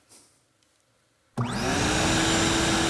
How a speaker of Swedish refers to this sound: Nu hör ni en dammsugare i bakgrunden och då undrar ni om vi städar här i poddstudion. Det gör vi inte riktigt.